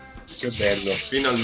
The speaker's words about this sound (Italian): Quello che avete sentito era il bidet